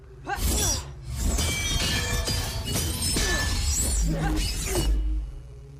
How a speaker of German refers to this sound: Anderer Aspekt, was den Ton angeht, der Sound von Lichtschwert trifft auf Beskar, da haben wir schon drüber gesprochen. Das hat so eine unglaubliche Wucht.